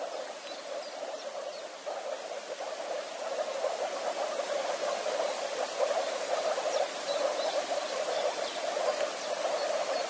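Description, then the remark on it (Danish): A dense, steady chorus of moor frogs and common frogs calling from a small pond in a small valley at Lille Vilmose, on the outskirts of Frederiksværk, Denmark. The moor frogs yap and the common frogs growl, making a continuous bubbling, yapping and low purring murmur that fills the whole recording, with no voices. “Spidsnudet frø og bjeffer og den putsnudet knurrer ude i et lille vandhul.”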